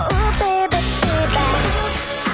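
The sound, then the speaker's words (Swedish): A short, loud burst of a pop song, played as a round in a music quiz, with sung melody over full instrumental backing and steady beats, playing continuously for a couple of seconds with no talking. “Härlig bitrate på den här låten.”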